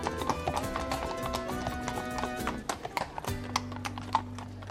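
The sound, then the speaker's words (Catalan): Horses trotting, their hooves clip-clopping in a quick, steady rhythm over a constant rumbling background, moderately loud, with no talking. “El xic va obeir i va fer anar els cavalls a trot, sense descloure els llavis en tot el camí.”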